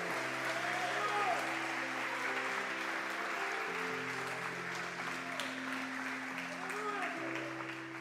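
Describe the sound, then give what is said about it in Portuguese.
An audience applauds steadily to glorify the name of Jesus, a dense wash of clapping at even loudness throughout, with sustained organ or keyboard chords shifting underneath and scattered voices calling out. “Quem crê, diga amém, aplaude e glorifique o nome de Jesus.”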